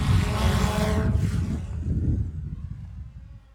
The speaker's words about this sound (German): Die Drohne ist kurz vor Marvin stehen geblieben, hat dann überlegt und hat gedacht, den fliege ich nicht um.